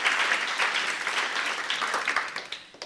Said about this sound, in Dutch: Dank jullie wel. Bedankt. Geef ze nog even een applaus.